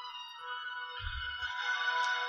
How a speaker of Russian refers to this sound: Я нашел полифонический звонок. Блять. Сука, выключи. Ничего не слышно. Выключи.